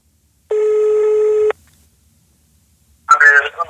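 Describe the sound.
A single steady electronic ringback tone of an outgoing phone call sounds for about a second, then silence, followed by a man's voice answering over the telephone.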